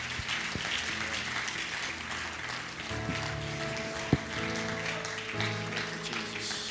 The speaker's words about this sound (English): Um, we should clap our hands for God, for our pastor.